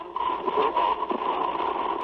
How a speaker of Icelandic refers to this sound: Það má heyra viðvörunarkerfi vélarinnar fara á fullt. Og flúmennina kalla til flugumferðarstjórnar í Tókjó að vélinn sé að missa þrýsting ört og þeir ætli að lækka flugið verulega.